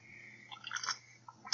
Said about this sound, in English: And take a sip of my tasty beverage.